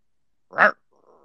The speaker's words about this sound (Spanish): Bueno, atención, siendo las 23.26, hay un perro que me vive mordiendo los tobillos. A ver, a ver, manden emojis. A ver, ¿quieren perro? ¿Quieren perro? ¿Sale? ¿Sale a la cancha el perro?